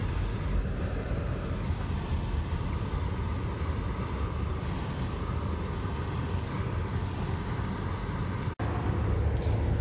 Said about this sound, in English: I was just getting out of the traffic out on the open road now, out of the downtown area on the highway.